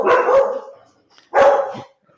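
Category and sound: animal, dogs barking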